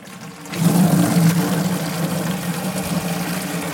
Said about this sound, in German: Und mit dem Gießkannen könnte man ja wirklich dieses richtige Heben und Tragen üben. Komm, das üben wir jetzt mal mit den Gießkannen. Genau, wir können ein bisschen Wasser reinmachen. Reicht ja halb voll.